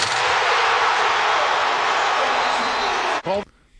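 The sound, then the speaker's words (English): During a basketball game, a basketball hits the rim and net, picked up by a microphone placed on the rim: a loud, steady rushing roar for about three seconds, then a sharp clang that rings briefly with a metallic tone before fading out. “Oh, I love when they like you get a good rim noise. Uh, yeah, I like that, and also the the the super loud net.”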